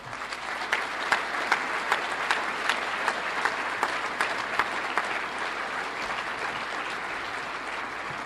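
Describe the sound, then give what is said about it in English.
A crowd claps in sustained applause for Mike McCready, a late high school football coach, and his family: a dense wash of overlapping hand claps with a few sharper individual claps standing out, holding an even level throughout with no voices. “And so before we bring them up, can you give a, a round of applause to Mike McCready and his family today?”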